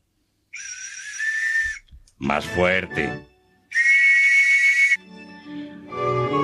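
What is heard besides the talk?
whistle being blown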